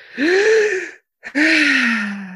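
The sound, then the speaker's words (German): A deep, audible breath drawn in, then after a brief pause a second long, breathy inhale, both loud with a slightly voiced rasp. “dass wir atmen.”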